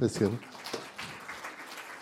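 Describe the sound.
A brief voice at the start gives way to soft, scattered applause from an audience, a light, steady patter of clapping that continues quietly for a couple of seconds.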